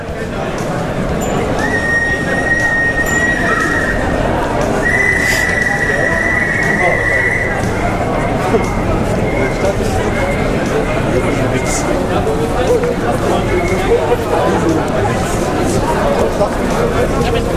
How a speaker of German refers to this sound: Es ist die erste Mai-Demonstration 2007 in Bonn.